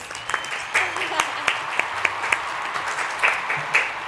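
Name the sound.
applause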